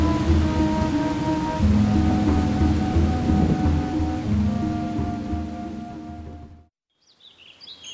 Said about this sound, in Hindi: आज पता नहीं क्यों शाम से ही बादल गरज रहे थे ऐसा लग रहा था कोई भयंकर तूफान आने वाला था और आखिरकार बारिश शुरू हुई